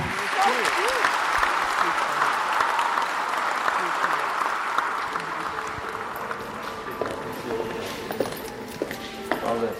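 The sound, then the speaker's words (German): Loud, sustained applause from a large audience after a young violinist's concert, a dense wash of clapping that continues throughout, with scattered voices, cheers and shouts of "Bravo" mixed into the crowd noise. “Prasselnder Applaus. Bravo. Bravissimo.”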